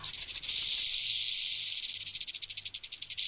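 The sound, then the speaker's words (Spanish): A snake from Cleopatra's straw basket rattles in a dry, hissing buzz, steady for a few seconds, then breaks into quicker pulses toward the end. No one speaks. “Suena el cascabel.”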